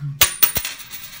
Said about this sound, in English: All right, heads is paper, tails is air. Here we go. Quarter is up.